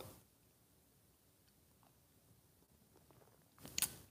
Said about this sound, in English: Fill it with your favorite liquid. I like this coffee stuff. And join me now for the unparalleled pleasure of the dopamine end of the day thing that makes everything better. It's called the simultaneous sip, and it happens now. Go.